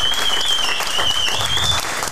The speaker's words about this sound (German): Und Nochmal einen ganz besonderen Applaus an den besten Chef, den die BVB-Redaktion bislang hatte. Er war der einzige.